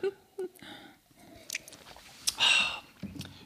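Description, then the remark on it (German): Two glasses, one of water and one of white wine, clink briefly in a toast, followed by quiet slurping sips and small mouth sounds, with no one speaking. “Wir stoßen erstmal an mit den neuen traditionell unkonventionell der Diversity Podcast Gläsern”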